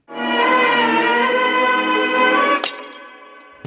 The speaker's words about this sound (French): Jingle.